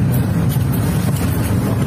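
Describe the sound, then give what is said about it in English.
A steady, rumbling vehicle engine runs throughout, a low droning hum with a constant loudness, like a truck idling or driving, with some faint airy noise on top. “Is that his truck right now?”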